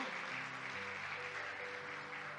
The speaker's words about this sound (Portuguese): Dê um aplauso a Cristo por Colômbia, por, essa, por esse país hermoso.